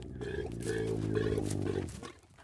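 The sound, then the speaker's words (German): A deep, drawn-out bellow from a camel bull being directed with a stick by its herder in the Burao district of Somaliland, a loud guttural rumble with a harsh throaty texture, lasting about two seconds before trailing off. No one speaks. “Der Hirte Xirsi Yamak Mire dirigiert seinen liebsten Kamelbullen mit dem Stock.”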